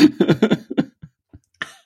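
A quick run of four or five harsh coughs, followed by a couple of faint catches of breath and one last short cough at the end, with no talking.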